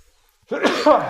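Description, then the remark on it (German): A single loud sneeze bursts out after a moment of silence, a sharp explosive release trailing into a brief breathy rasp. “Gesundheit. Entschuldigung, Corona.”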